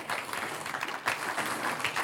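A church audience breaks into steady applause for the Lord during a sermon on Colossians, a dense wash of many hands clapping at once, fairly loud and sustained for the full two seconds with no voices standing out.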